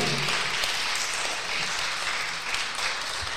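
A crowd applauds Christ during a sermon, steadily, a dense, sustained wash of many hands clapping at once at an even volume from start to finish without any voices.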